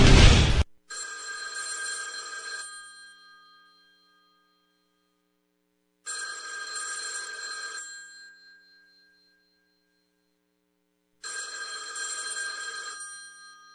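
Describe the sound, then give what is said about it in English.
A telephone rings three times in evenly spaced bursts, each a bright trilling ring lasting about two seconds with silent gaps between, heard clearly and alone after a brief burst of noise at the start. “It means you're another call closer to losing your home to foreclosure.”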